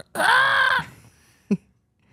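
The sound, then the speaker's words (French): A voice imitates a squeaking rubber chicken, recreating the sound made on being woken by being jumped on, with one long, strained, nasal squawk held for about half a second, followed by a short, sharp squeak-like burst a moment later. “Tu sais, des poulets en caoutchouc, tu sais, qui fait”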